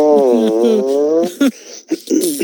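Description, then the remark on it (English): Someone blows a mouth-made fart noise, a loud, drawn-out buzzy tone lasting over a second, followed by a few short sputtering bursts. “Ironic, actually, I made that fart noise because that's what she was most famous for before she went somewhat serial.”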